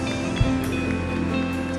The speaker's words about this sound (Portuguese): Se você crê, dê uma salva de palmas bem forte. Adore ao Senhor com as suas palmas.